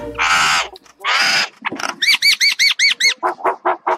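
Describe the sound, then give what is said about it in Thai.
A voice mimics a myna's loud call: two harsh, raspy squawks, then a rapid run of about seven high, arching whistled chirps, ending in a few lower, shorter chirps. “เสียงฉันน่ะก็เลยใส ปิ้งแบบนี้ละจ้า พอพูดจบเจ้านกเอี้ยงก็ได้ร้องเสียงดังขึ้นมาอีกว่า”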